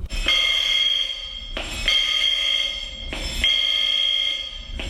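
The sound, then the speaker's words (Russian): A ship's alarm signal, set off by the third mate at exactly midnight on New Year's Eve, blares in three long, loud, buzzing blasts, each about a second and a half, separated by brief gaps, with no voices present. “и в ровно 12 часов третий помощник запустил сигнал тревоги.”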